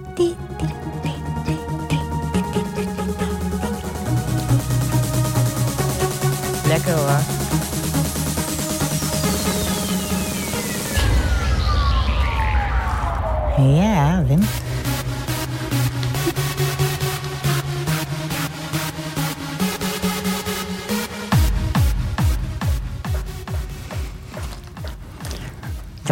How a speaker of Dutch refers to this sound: En wilt u deze tune ook live horen in het stadion van Herakles Erva